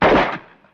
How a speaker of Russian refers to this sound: Это выстрел из автомата? Верно. А из какого? М-м, не могу знать, капитан Дина. Эх, Проша, это автомат Калашникова.